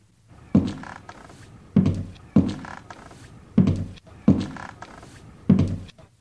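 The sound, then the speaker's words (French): Six heavy, hollow footsteps of an adult, not a child, land one by one on a wooden parquet floor, fairly loud, with a slow, slightly uneven pace and short pauses between steps. “Il y eut une brève période de silence, puis des pas sur le parquet.”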